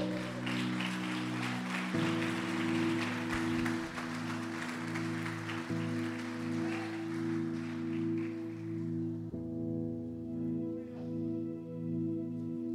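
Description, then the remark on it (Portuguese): A church audience stands and claps steadily, applauding and glorifying the Lord, in a dense, sustained wash of applause over held keyboard chords that shift every few seconds; the clapping fades out near the end, leaving the chords ringing alone. “Se coloque de pé aplaudindo e glorificando ao Senhor.”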